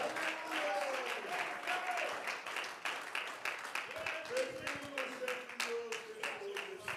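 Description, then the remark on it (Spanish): An audience claps steadily in praise of God for several seconds, a dense, continuous patter of many hands, with sustained vocal tones rising and falling above the applause. “Si su aplauso y su alabanza es para Él, bríndesela con calidad y con amor.”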